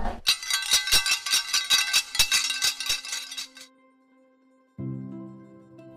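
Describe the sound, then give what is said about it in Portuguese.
Sports medals jingle and clink together in a quick, bright rattle for about three seconds as they are shown, then fade. A low sustained tone follows after a brief pause. “Sempre positiva, ela mesma diz, mostrando as medalhas que acumulou no esporte.”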